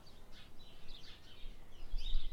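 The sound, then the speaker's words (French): Birds chirp and sing softly in an outdoor garden, a few scattered high calls over a faint background hush, quiet. “les oiseaux qui chantent.”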